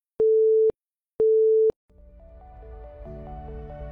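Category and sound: signal or alarm, telephone busy signal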